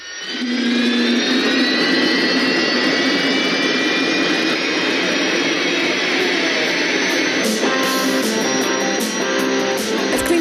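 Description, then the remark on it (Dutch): A turbine engine on a pulling tractor spools up and holds a loud roar, a high whine layered over dense rumble that holds steady for ten seconds with no voices. “gewoon alsof er een vliegtuig gaat opstijgen.”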